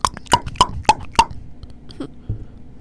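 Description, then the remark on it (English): A voice imitates someone banging on a bedroom door: five quick, sharp knocks in an even rhythm, fairly loud, followed by a couple of softer, duller mouth sounds. “I heard a beating on my door.”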